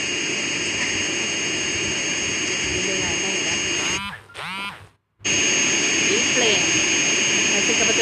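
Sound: jet airplane engine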